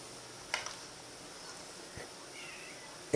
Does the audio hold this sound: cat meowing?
yes